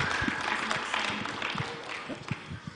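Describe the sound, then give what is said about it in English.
A church audience gives God a clap offering during worship, a dense, sustained wash of clapping, with a few sharper individual claps standing out and faint voices mixed underneath. “Let's give God a big clap offering.”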